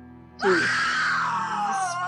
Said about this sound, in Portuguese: Eu solto um grito.